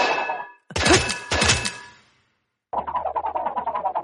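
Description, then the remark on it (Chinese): Sun Wukong pounding and smashing on the door of the Yunzhan Cave, where the pig demon is sleeping: a burst of loud, crashing thuds and clatter, a brief pause, then a fast, steady run of repeated knocks. “那妖怪被惊醒，啊，把俺家的门都砸坏了。”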